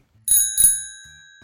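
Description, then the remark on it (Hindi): A bicycle bell rings twice in quick succession, bright, its metallic tone lingering and fading out over a second. “बेटा वो मेरी छोटी बहन की साइकिल है अच्छा तभी इतना जगमगा रही है मैंने हंसकर कहा और साइकिल की घंटी बजा दी”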